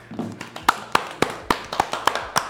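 A person claps their hands about seven times in a loose, slightly uneven rhythm. Each clap is a sharp, moderately loud crack, with no talking over it.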